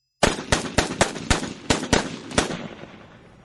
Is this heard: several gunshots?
yes